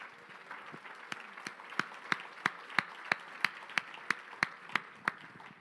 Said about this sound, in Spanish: ¿Le puedes dar un, aplauso fuerte al Señor?